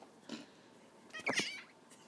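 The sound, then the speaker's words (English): A cat that has just stepped on an iPad makes two short vocal sounds, a faint brief one followed by a louder, drawn-out meow, with no talking around it. “Uh, if the quality just went down a little bit, the Cat just stepped on the iPad.”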